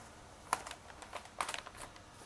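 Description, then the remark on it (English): Paper bags rustle and crinkle in short, irregular bursts as they are counted, four in all, with two clusters of sharp rattling handling noises against a quiet background. Nobody speaks. “Paper bags. I'm using paper bags.”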